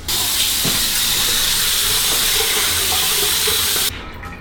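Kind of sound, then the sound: household object, running tap water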